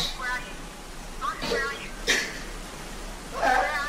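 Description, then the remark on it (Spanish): A hooded person with a bag over the head cries and whimpers in short, wavering sobs that come in uneven bursts over a steady background hiss, somewhat muffled. “Y está llorando.”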